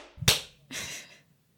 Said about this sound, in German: So, wir synchronisieren das jetzt mal. Wir klatschen. Klatschen wir, wenn du drei sagst oder bevor du drei sagst. Oder? Eins, zwei, drei.